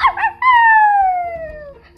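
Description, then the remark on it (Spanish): A single long wolf howl, sliding slowly downward in pitch and fading out, preceded by a brief rougher yelping burst. Loud, with no talking. “Mm, también están los hombres lobo.”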